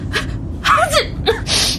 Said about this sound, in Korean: 덕분에 내가 고양이 알레르기가 있다는 걸 알게 됐다. 결국 재채기가 나왔다.